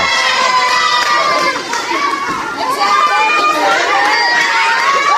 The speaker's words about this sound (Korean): 지금 당첨돼가지고 환호하는 음성입니다.